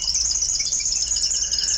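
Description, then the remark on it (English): A high-pitched, rapid twittering song from an eastern double-collared sunbird, a small songbird of a population living at the tops of tall mountains in East Africa, runs continuously and fairly loud throughout, with a thin, buzzy, insect-like quality and no voices. “That's the eastern double collared sunbird, a population of which lives at the tops of tall mountains in East Africa and which has been isolated for hundreds of thousands to maybe a million years.”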